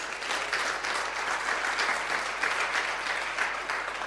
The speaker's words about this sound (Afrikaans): Kom ons gee hom 'n lekker hande klap.